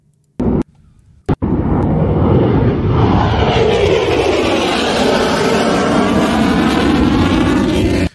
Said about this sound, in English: For some reason, it's showing you what a jet sounds like.